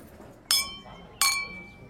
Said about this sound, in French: C'est Max, le mari de Katrina, qui remplit nos verres.